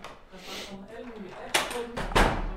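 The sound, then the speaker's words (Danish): A door in the basement of a radio station opens with a sharp clunk, followed by a heavier rattling thud as it swings, while soft voices murmur in the background. “Nå, der står døren åben.”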